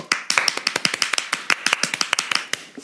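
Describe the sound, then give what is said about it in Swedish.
A short burst of applause from a small group, with sharp, crisp handclaps arriving in a quick, uneven patter for a few seconds, fairly loud and with no voices over it. “Vi måste göra en applåd för henne.”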